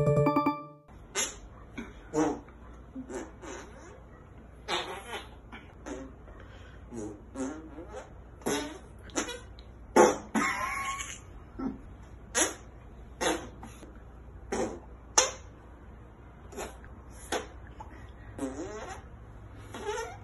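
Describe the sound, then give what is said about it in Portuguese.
A rapid series of squelchy armpit fart noises made in an armpit fart contest, fairly loud, popping out in irregular bursts over about twenty seconds with brief gaps, some short and clipped, others longer and wetter. “A única solução é campeonato de peidinho de sovaco.”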